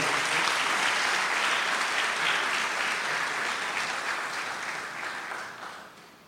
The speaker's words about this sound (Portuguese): Mais uma vez, palmas para aquele que realiza essa obra.